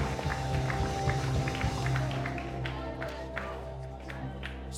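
A youth ministry audience claps in praise to God in a dense, steady patter of many hands, sustained and fairly loud over a low, constant hum, with scattered sharper claps standing out.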